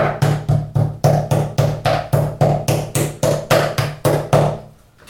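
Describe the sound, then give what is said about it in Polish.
Meat slices for beef rolls being pounded with a toothed meat mallet: about fourteen quick, heavy thuds in a steady, even rhythm, loud and dull, with no talking, ending in a brief fade. “Pierwsza, można powiedzieć, jest już rozbita. Teraz zaczynamy następną.”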